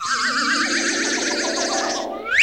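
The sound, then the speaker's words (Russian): A shimmering, warbling synthetic tone swirls steadily for about two seconds, then ends in a quick rising whoosh, like a magical portal opening. No voices are heard. “Не знаю, а только отсюда слышны были звуки – которые межсказочные порталы издают.”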